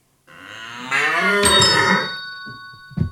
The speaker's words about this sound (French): Mauvaise réponse. C'était le cerf.